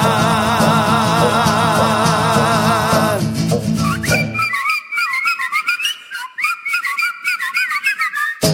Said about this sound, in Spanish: Logré mi objetivo con determinación, hoy soy de mi cuadro el machido chiflador, es un sueño hecho realidad, es un sueño hecho realidad, por fin he aprendido a chiflar.